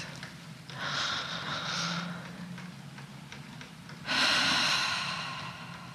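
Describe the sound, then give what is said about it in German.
Two long, audible breaths during a relaxation exercise: a soft airy exhale lasting about a second and a half, a pause, then a louder, breathier second breath that slowly fades. No talking. “Du machst es eine Weile und atmest hörbar, so dass du dich selber hören kannst.”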